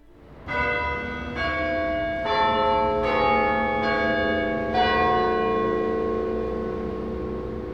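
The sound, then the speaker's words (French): A nearby church bell rings the half hour in a series of strong, overlapping strikes, roughly every second, each tone ringing and sustaining into the next with no voices present. “En réponse, la cloche d'une église toute proche sonne la première demi-heure du début du reste de sa vie sans sa sœur.”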